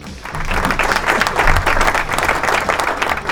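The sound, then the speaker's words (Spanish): Audience applause welcoming a guest on a weekly rock news show fills the moment: dense, steady clapping from many hands, loud and sustained for a few seconds with no voices over it. “Bueno, aquí vamos a estar el señor, por favor un aplauso,”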